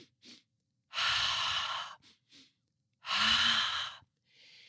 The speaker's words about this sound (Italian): Inspirare in due volte ed espirare con un'espirazione eh, lunga, quindi così.